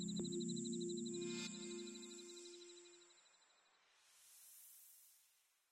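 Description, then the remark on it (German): Grasshoppers chirp on a meadow on a warm summer night in a steady, high buzzing trill, layered with a lower drone, before fading and giving way to a soft rising hiss near the end. No one speaks. “Und die Heuschrecken singen in warmen Sommernächten auf der Wiese ihr Abendlied.”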